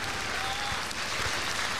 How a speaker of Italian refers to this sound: adesso sentiamo in sottofondo i, gli applausi dell'applausometro.